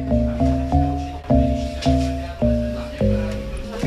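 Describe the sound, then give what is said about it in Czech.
A simple folk melody played in synthetic chord-like tones built from sonified NMR data of a single molecule, ethanol (alcohol), each note a steady, slightly buzzy cluster, struck about twice a second, clear, with no talking. “Že na rozdíl od toho předchozího případu, kdy každá klávesa hrála jinou molekulu, tak tady pořád hrajeme jenom jednu molekulu a to je molekula etanolu neboli lihu”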